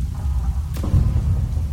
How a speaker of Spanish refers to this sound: Iván llamó a la puerta, esperamos un momento, e Iván plantó firmemente el pie en el suelo, preparándose para derribar la puerta de una patada, cuando un disparo de escopeta atravesó la puerta.